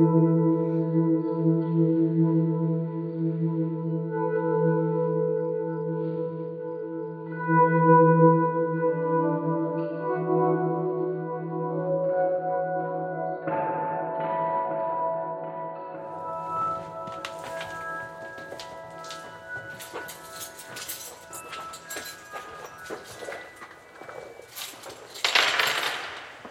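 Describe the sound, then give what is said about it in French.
Long, ringing tones hang and blur together in the strongly reverberant spherical dome of an observatory, followed by scattered metallic clinks and knocks whose echoes linger and swirl around the dome. “Alors là, vous avez une réverbe particulière, parce que la coupole est là aussi sphérique.”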